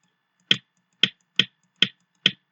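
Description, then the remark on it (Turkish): Five crisp, punchy drum hits from a standard drum kit sample sound one after another at a slightly uneven pace, each short and snappy with a quick decay, played alone without any talking. “Normalde bateri sesi buyken”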